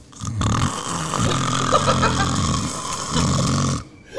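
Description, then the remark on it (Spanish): A person loudly imitates their own snoring with their voice, producing two long, rough, rattling snores in a row, with a brief pause between them. “Mira, yo ronco así.”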